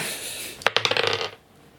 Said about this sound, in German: Stimmt, du musst zwei würfen. Ja, dann muss ich einen anderen auch würfeln.